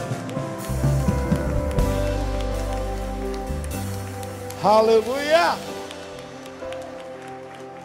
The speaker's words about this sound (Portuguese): Aplaudem ao Senhor bem forte.